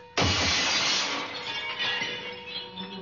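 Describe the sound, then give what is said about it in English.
A bedroom skylight suddenly shatters at about three o'clock in the morning, a loud burst of breaking glass all at once, followed by a long bright spray of tinkling shards that slowly thins out over a few seconds. “Once again, it, it must have been about three o'clock in the morning when there was a sound which would have awakened the dead.”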